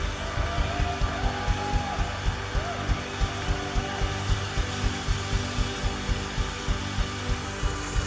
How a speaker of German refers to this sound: Komm, Gott, nochmal einen richtig dicken Applaus geben.